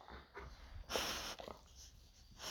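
A dog breathes heavily, with quick snuffling puffs and a louder wheezy exhale in the middle, no talking over it.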